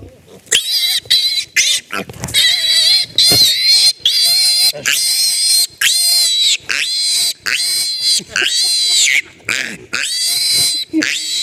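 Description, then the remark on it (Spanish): A piglet squeals loudly and almost nonstop in long, shrill, high-pitched bursts separated by brief gasps, piercing throughout, as it is picked up. “Eso es un hermoso lechoncito cuando lo agarras.”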